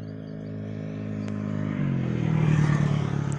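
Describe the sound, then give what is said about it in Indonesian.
Many motorcycle engines drone steadily, their harmonic hum shifting and rising in pitch as one passes by, with traffic noise building toward the end and no one speaking. “ntar ini motor banyak banget ntar ya ini kalau mau dengar suara motornya gini nih”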